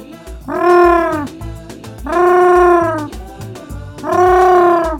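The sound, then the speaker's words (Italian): A person imitates an owl hooting, giving three long, loud, tonal hoots at a steady pace, each swelling and fading, with no talking in between. “È gufo? Bravo! Certo.”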